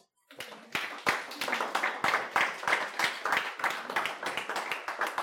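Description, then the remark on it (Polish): An audience at a church service claps steadily for about five seconds, a dense, even patter of many hands that starts abruptly and stays at a fairly constant loudness throughout, with no voices on top. “I moi drodzy, te oklaski jest teraz dla Was.”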